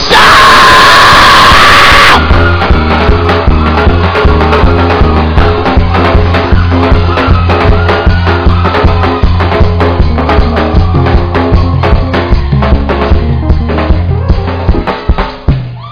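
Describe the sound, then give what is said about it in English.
A large audience at a Christian worship service shouts and cheers loudly for a couple of seconds, then the roar gives way to music with a steady, driving beat. “As you shouted, I saw the angel of God giving people gifts.”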